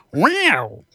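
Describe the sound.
A person imitates a cat with a single drawn-out meow that rises and then falls in pitch, voiced fairly loud, with brief silence before and after.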